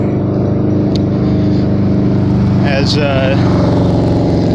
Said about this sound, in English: motorcycles ride by.